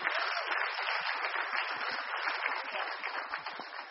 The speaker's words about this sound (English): Will you give him a round of applause? You can now sit down.